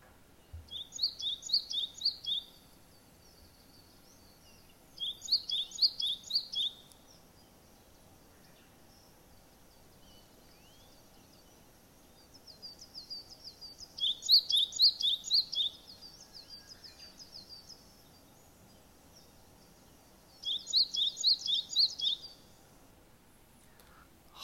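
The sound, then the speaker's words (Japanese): A Japanese tit sings outdoors in short repeated bursts of bright, rhythmic two-note phrases, five song bouts spaced a few seconds apart over a quiet background, no voices present. “はいこれもねよく聞いてるんじゃないですかんかもう本当にあ春みたいな感じですよねはいこれは何の鳥かというとですね四十からという鳥です”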